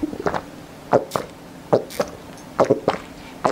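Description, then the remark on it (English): A series of wet gulping sounds of a man actually drinking in a studio, big swallows repeating at a steady pace roughly every second, with a faint low background hum and no talking. “Oh, well, he's actually drinking as well. It's not just the sound effect.”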